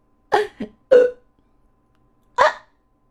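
Four sharp, breathy hiccups after laughing too hard, in an uneven rhythm: two quick ones close together, a third just after, then a pause before a final one. No talking.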